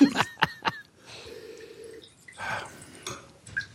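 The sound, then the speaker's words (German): Splashes and sloshing water in a wine glass during a white wine tasting, with a few sharp clinks at the start, then a steady swirling rinse with water and a final splash and drip. “Also ich, ich spüle meins mal aus mit so Wasser mit so.”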